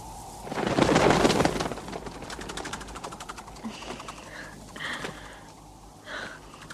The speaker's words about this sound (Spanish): Unas perdices emprenden el vuelo desde unos matorrales.